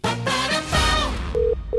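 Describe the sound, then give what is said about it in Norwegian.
A telephone rings with steady, mid-pitched electronic tones in two short bursts, following a brief swell of bright, layered music; it is an incoming call to the studio phone of a Radio Norge radio show. No one speaks. “Ja, hvem er det som ringer oss?”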